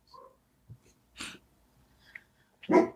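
dogs barking outside

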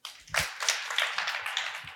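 audience clapping hands

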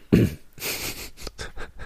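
cough

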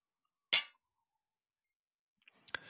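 glasses clinking

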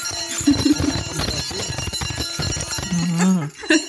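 hand bell being rung

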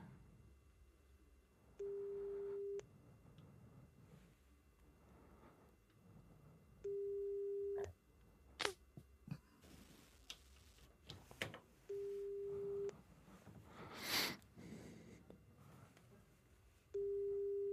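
telephone ringback tone

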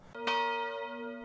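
church tower bells ringing

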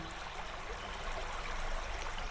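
flowing river stream

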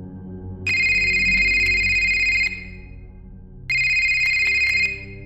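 mobile phone ringing

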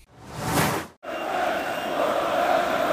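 football fans singing

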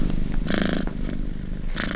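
cat purring

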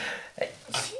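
sneeze

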